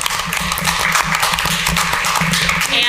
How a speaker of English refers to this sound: You have to clap. You can clap if you want after everyone. There you go.